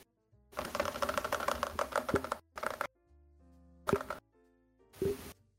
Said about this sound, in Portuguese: Você escutou o teclado mecânico dele, os cliques. E ele jogando.